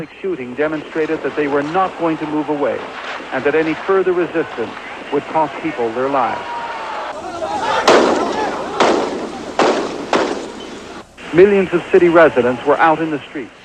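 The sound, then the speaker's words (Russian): Sporadic gunfire: a handful of sharp, irregularly spaced cracks over a noisy, crowded background, with people talking before and after the shots. “Периодическая стрельба означает, что армия никуда не уходит, и любое сопротивление может стоить жизни.”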